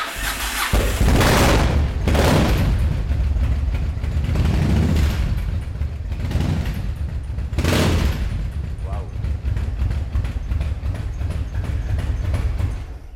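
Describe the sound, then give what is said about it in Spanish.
A loud engine of the speaker's own motorcycle runs steadily for several seconds, with repeated throttle surges as it revs up and settles back, rough and throaty throughout. “Si va a ser mi moto, ¿no?”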